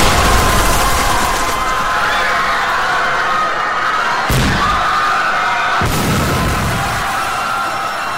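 A bomb explosion sound effect for a bomb thrown at a motorcade that struck the open top of a car, fell into the street and exploded at the following car; loud, with a dense roaring rumble and two sharp blasts cracking through partway in, sustained for several seconds without any voices.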